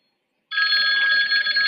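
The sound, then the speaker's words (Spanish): A mobile phone starts ringing abruptly on board an aircraft after a brief silence, a loud, steady electronic ring with bright tonal harmonics that continues without pause. No voices are heard. “¿qué haces con tu pinche teléfono ahí, cabrón? Te dijeron apaga.”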